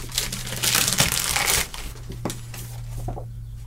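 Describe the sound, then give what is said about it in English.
Busy crinkling and rustling of packaging for about a second and a half, then quieter scattered snips and crackles as a parcel is cut open with kitchen scissors, with a low steady hum underneath. “I've got kitchen scissors.”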